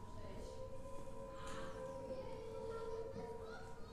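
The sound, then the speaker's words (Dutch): A haunted castle ride's entrance soundtrack, which plays as visitors come in, sounds as steady, droning music tones amid a busy crowd with children's voices chattering in the background throughout. “Ja, en dan die, die, die soundtrack die ook afspeelt als je binnenkomt, hè, dat geeft al zo'n.”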